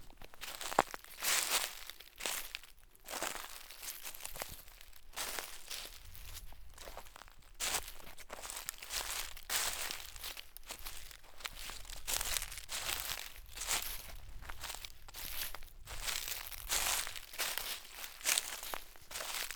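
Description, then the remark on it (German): Dry oak leaves rustle and crinkle continuously in autumn, broken by frequent sharp cracks and crunches of acorns cracking among the oak leaves, with no talking. “Im Herbst sind die Eichen so auch gut an ihrem Laub zu erkennen, indem man immer wieder das Knacken der Eicheln hören kann.”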